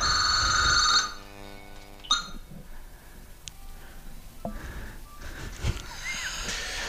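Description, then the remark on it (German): A telephone bell rings loudly in one short burst, its tone lingering and fading out, followed by a few quiet clicks and soft background noises. “Ja, manchmal klingelt eben bei uns immer das Telefon.”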